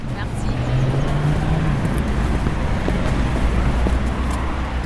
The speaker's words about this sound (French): c'est cette voiture euh, Voilà, c'est un corbillard en fait.